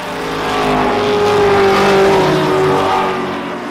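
A race car engine roars and revs at Morgan Park Raceway, a motorsports venue just south of Warwick, its whining pitch climbing and holding before easing off, loud, with no voices over it.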